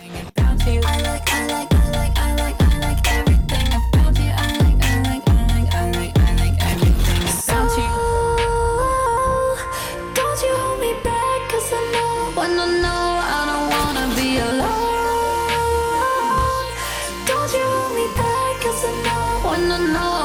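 A loud pop track plays on its own, opening with punchy, steady drum hits before shifting into smoother sustained synth and vocal-like melodic lines over a continuing beat.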